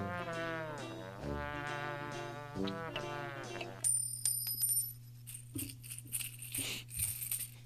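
A few seconds of sustained tonal music give way to a run of small, bright metallic clinks as someone counts coins received as tips, fairly quiet over a low steady hum.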